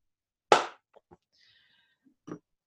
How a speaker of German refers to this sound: Okay, okay. also ich, ich klatsche und dann geht's los.